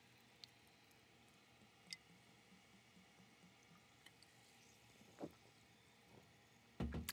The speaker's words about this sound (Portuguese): Portanto, abri uma água das pedras agora e vou cipar. Vou cipar.